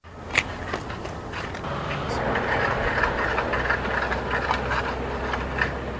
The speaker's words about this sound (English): You can hear the cars and trucks as they whiz by as the search warrant is served.